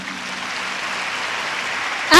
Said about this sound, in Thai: ขอเสียงปรบมือให้อัพไลน์ท่านหน่อยค่ะ